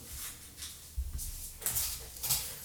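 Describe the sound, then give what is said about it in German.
A chair is pushed back down, giving a few scraping, sliding bursts with low thumps. The sounds are moderately loud, arriving in short irregular pulses with no talking. “Schiebe meinen Stuhl wieder runter.”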